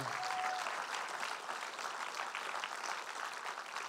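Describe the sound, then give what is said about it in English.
A crowd applauds steadily, a dense wash of clapping with some cheering mixed in, sustained and fairly loud throughout with no pauses. “Make some noise”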